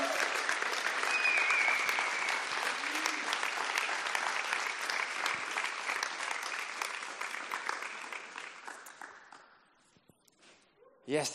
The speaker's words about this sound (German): nochmal einen großen Applaus für ihn, lass uns willkommen heißen.